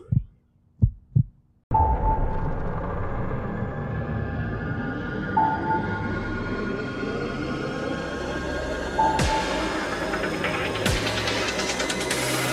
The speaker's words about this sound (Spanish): Lasalle Radio. Tu latido.